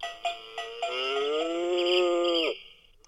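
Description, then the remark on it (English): An old cow-shaped alarm clock lets out a long, drawn-out electronic moo after a few quick clicks. The sound is fairly loud, swelling and holding steady for about two seconds before cutting off, with no talking. “Well, my old alarm we've also got in the system, which used to be in the in the shape of a cow.”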